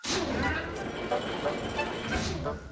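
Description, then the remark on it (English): Cranky the Crane, a very tall green dockside crane at Brendam Docks, moving, with a steady, dense mechanical rumble and grinding, creaking tones running continuously and fairly loud for a few seconds. “When Cranky moves, he sounds like this.”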